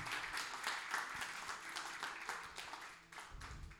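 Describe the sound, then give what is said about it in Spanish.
A church audience applauds the Lord, the King of Glory, steadily: a dense wash of many hands clapping at a fairly loud, even level that eases slightly near the end. “Dele otro fuerte aplauso al Rey de Gloria.”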